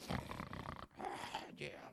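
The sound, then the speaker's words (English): A voice imitates loud snoring with rough, gravelly snorts, about three rasping breaths broken by short pauses, acting out Peter taking a big nap on a rooftop. “He's snoring one day, taking a big nap on a rooftop”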